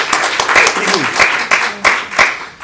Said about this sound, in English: So oh. congratulations. Oh. Big round of applause.